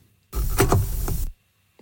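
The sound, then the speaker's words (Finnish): A Dymo label printer cuts its printed tape in one quick mechanical burst, a brisk, rough whirring snip lasting about a second, fairly loud, with silence before and after and no voices. “se ääni tulee tämmöisestä Dymo Tarra-tulostimesta, kun katkaistaan se nauha, se tulostusnauha siitä”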